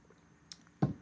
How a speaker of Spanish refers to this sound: Voy a tomar un poco de agua, disculpe.